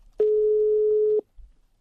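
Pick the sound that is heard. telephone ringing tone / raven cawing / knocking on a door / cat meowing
telephone ringing tone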